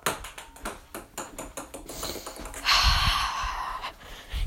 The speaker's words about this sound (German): Mit einem Tischtennisball. Also so wie Bierpong, aber nur mit einem, mit einem Nutella-Glas.